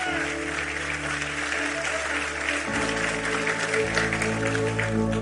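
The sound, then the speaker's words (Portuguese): An audience applauding God during a Christian sermon, a dense, steady wash of many hands clapping that fills the whole stretch, with sustained musical chords playing underneath and shifting partway through. “Se você crê nisso, aplauda a Ele.”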